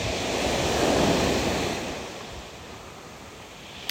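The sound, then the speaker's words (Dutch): Sea waves break on the shore on Crete, a broad washing roar that swells in the first second and a half, then slowly recedes into a softer hiss. There is no talking. “Meditatie aan zee op Kreta”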